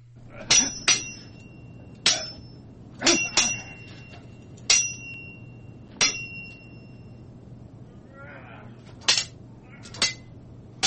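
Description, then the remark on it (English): Metal swords clang together in a series of sharp, ringing strikes, about a dozen irregular clashes, some in quick pairs, each leaving a bright metallic ring over a low steady hum. “all right guys let's uh do some sword ratcheting.”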